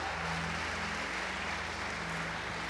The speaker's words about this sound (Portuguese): Você pode aplaudir, celebrar o Senhor.